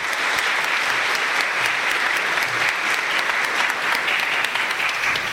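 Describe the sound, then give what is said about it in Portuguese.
An audience applauds steadily, a dense, even wash of many hands clapping at once that holds at a constant loud level throughout, with no voices rising above it. “E a esse espírito nós queremos acolher com uma salva de palmas na vida e no coração de todos nós.”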